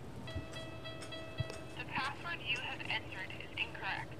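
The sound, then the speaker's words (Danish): A steady electronic tone buzzes for over a second as an electronic code lock rejects a wrongly entered code, followed by muffled voices talking. “prøv lige at trykke en forkert kode, så kan man lige høre, hvordan det lyder.”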